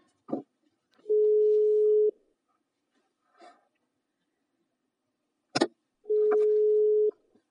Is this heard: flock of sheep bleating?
no